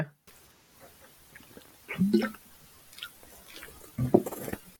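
Two wet gulping sounds from a throat as a person swallows water into a microphone, about two seconds apart, with faint mouth and lip noises around them.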